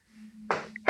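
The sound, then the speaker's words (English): A sneeze: a sudden breathy burst of noise followed by a second sharp, hissing burst a moment later, over a faint low hum with no talking. “Oh. bless you.”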